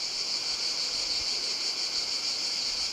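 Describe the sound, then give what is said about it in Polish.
A cicada buzzes in a steady, continuous high-pitched drone made by the timbal membranes on the sides of its abdomen, loud, with no pauses or talking for the whole stretch. “cykady posiadają na, na bokach odwłoku membrany. E, te membrany nazywają się timbalami.”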